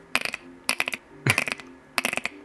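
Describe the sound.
A person imitates a frog call of an unknown frog species by curling the tongue so it vibrates: four short bursts of rapid, rattling clicks in a steady rhythm, fairly loud, with no talking.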